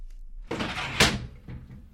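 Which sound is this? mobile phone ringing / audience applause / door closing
door closing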